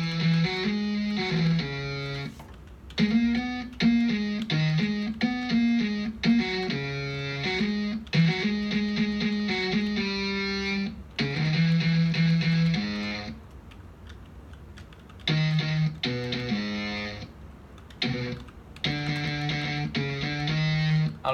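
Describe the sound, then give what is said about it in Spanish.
A small, high-pitched guitar played through heavy distortion, picking out a choppy melodic line of buzzy sustained notes with brief pauses, loud with no voices. “Claro, sí, pero el caso es que Este, claro Ahora le puse la distorsión.”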